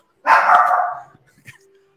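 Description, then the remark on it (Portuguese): A single loud, drawn-out bark from a female dog, followed by a few faint clicks and a quiet low hum as it fades. “Se eu não trocar, ela vai ficar latindo até o final do faca aí.”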